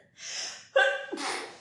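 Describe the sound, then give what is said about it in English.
A single fairly loud sneeze: a breathy intake, a brief voiced 'ah', then a sharp, hissing burst of air, with no talking. “Bless you.”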